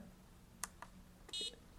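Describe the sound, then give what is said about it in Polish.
Two soft clicks as a cursor routing key is pressed, then a single short, low electronic beep from a braille display as it switches its interface to Bluetooth, lasting about a fifth of a second over faint background hiss, with no talking. “o właśnie, Słysze, słyszeli Państwo E, nie wiem jak to powiedzieć, taki krótki, niski sygnał. E, I to właśnie monitor brailleowski zmienił, zmienił interfejs na Bluetooth.”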